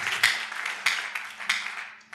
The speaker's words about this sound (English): Clap your hands and take your seat.